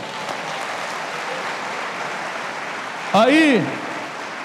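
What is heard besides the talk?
audience applause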